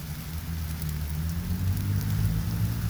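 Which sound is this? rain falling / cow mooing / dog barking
rain falling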